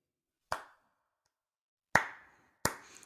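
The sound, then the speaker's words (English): Three sharp hand claps applauding USC for hiring Lincoln Riley away from Oklahoma, each a crisp slap with a quick ringing tail; the first stands alone, then two follow closer together after a pause, with silence between and no talking. “I'll, I'll give that that deserves a clap for USC for figuring it, sure it out.”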